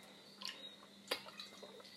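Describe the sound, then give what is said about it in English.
Soft sips and swallows of water, a few faint wet gulps and clicks spaced apart against a quiet, steady background with no one speaking. “Drink some water.”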